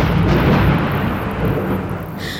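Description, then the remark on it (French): Loud, deep thunder from a thunderstorm at night rolls and rumbles continuously for a couple of seconds, a heavy low roar filling the whole stretch with no voices present. “Cette nuit-là, un orage éclate.”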